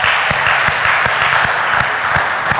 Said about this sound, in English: So, I mean, we just clap for the Lord. You can clap for that.